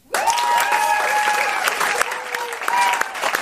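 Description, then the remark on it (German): An audience of 1068 gathered for an evening live show on the Reeperbahn applauds steadily with dense clapping, joined by loud whistles and cheering voices rising over it, the whole crowd sounding lively throughout. “Ja, wie Sie hören, alle 1068 Abonnenten sind heute Abend hier versammelt und äh, die Stimmung ist am Höhepunkt.”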